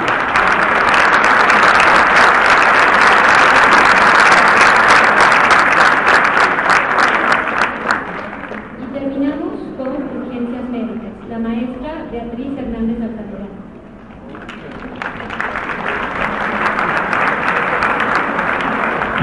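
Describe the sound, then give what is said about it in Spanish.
A crowd breaks into loud, dense applause for the graduates of the Climate Engineering degree programme; it dies down while a voice speaks briefly, then the clapping swells up again through the end. “un aplauso a todos los egresados de la carrera de Ingeniería Climática.”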